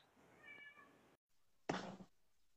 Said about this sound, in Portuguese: Meu gato